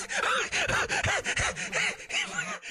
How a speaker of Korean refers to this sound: 아, 무슨 숨소리가 이래?